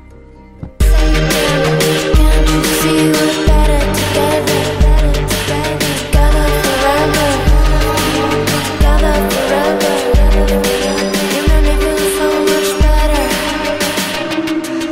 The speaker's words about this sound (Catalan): i també música electrònica de ball, que és el moment on més contrast trobem de la tradició d'on ve ella.